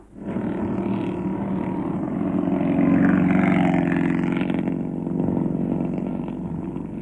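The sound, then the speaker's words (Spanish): A new car's engine fires up and settles into a loud, steady roar, swelling as it revs and picks up speed, then holding a strong drone through the end with no voices. “Arrancó perfectamente. Ahora tiene que aumentar la velocidad al tomar la curva para...”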